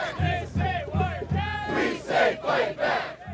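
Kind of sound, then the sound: crowd, protest crowd chanting slogans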